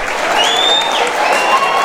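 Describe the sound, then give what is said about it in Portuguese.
A crowd claps steadily and loudly as Mayor Fábio Miranda arrives at an event, a dense, continuous wash of applause with faint whistles or cheers rising over it, mixed with murmuring voices. “recebendo os aplausos.”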